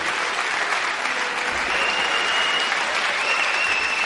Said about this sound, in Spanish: Sí, me, me, vais a perdonar, pero durante los aplausos no sé qué hacer.